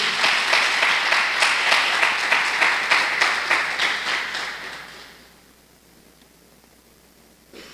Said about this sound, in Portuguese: Dá um aplauso ao Senhor aí em nome de Jesus.